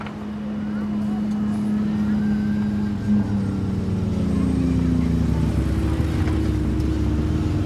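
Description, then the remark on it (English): An Escalade SUV drives out of a tunnel, its engine droning steadily; the low hum climbs in pitch and grows fuller partway through as the vehicle accelerates, a constant rumble running to the end. “Wait, it's an escalade, you said? Yeah. All right, here he comes.”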